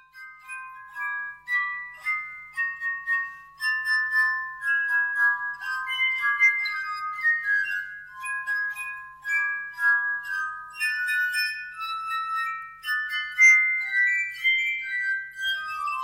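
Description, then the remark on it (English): Glass armonica playing a slow, ethereal melody of sustained, shimmering tones that overlap and swell gently, clear, with no voices throughout. “it's actually harmonica, which is uh, uh, based on the Italian word for harmony”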